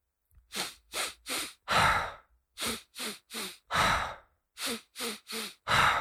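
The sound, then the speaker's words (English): In a breathing exercise, three quick, sharp sniffs in through the nose with no exhale between them are followed by a long, relaxed, breathy sigh out through the mouth, repeated in a steady cycle three times, clear with no talking. “you take three short, sharp inhales through the nose”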